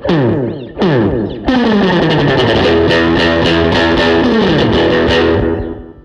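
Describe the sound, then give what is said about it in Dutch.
A Telecaster electric guitar through a delay effect: a few loud strummed chords, then a dense, ringing wash of rhythmic repeating echoes that fades out at the end. No voices. “Nou, waar we net ook al over hadden, is dat eh, het probleem van de Telecaster is dat hij heel veel naar hoog heeft.”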